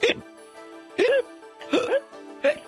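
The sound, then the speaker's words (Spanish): A voice mimics hiccups four times in a row, short sharp vocal bursts spaced roughly evenly, fairly loud over a faint steady background hum. “Porque no masticamos bien la comida. Y eso provoca que nos dé el...”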